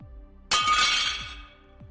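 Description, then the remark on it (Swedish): A sudden loud crash of plates hitting the floor and shattering at 0.5 seconds as a ready-made meal is dropped in the lunchroom of a police station, followed by a bright scatter of shards skittering and tinkling as the noise fades. “Tappa tallrikarna på golvet.”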